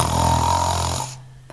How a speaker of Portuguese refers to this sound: Olha, o nosso cão está a ressonar imenso, não sei se vai aparecer aqui ou não, mas ele está tipo.